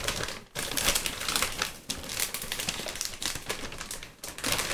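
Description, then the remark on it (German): Bubble wrap crinkles and crackles steadily as it is unwrapped while unpacking a cardboard box, a dense, bright rustle of tiny snaps with a few brief pauses and no talking. “Das ist schönes Ballonpapier.”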